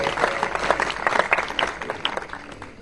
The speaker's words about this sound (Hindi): ये सब इज्जत और जलाल खुदा के नाम को एक बार भरपूर तालियां आज के कलाम के लिए आज के जो हमारे वॉइस थे उनके लिए और हमारी क्वायर के लिए